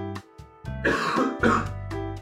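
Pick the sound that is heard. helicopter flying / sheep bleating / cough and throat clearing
cough and throat clearing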